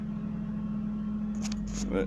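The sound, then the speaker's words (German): A tractor engine idles in a steady, low droning hum that holds constant throughout, with a few brief, faint higher noises toward the end. “Jetzt hat er seinen Trecker ausgemacht, der ganz toll.”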